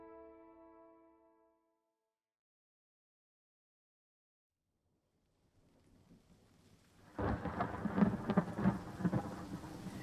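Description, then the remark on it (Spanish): A thunderstorm swells out of near silence: low rumbling builds, then loud, dense rain and crashing thunder burst in and keep pounding steadily to the end, preceded briefly by a fading musical tone. “El estallido de la tormenta lo despertó con la cara sumida en un pequeño charco de agua que la lluvia había creado.”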